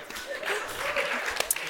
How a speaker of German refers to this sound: Applaus an ChatGPT. Applaus an ChatGPT.